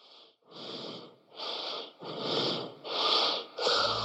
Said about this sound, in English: Recently, I got a voicemail from somebody who was breathing so heavily I could hardly tell who it was.